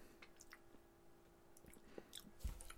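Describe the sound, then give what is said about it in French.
Chewing of a crunchy speculoos praline with a crunchy fondant filling, a run of soft, wet squishes and small crunches at an uneven pace, fairly quiet, with no talking. “Rien de moins que ça praliné fondant croquant qui est ici.”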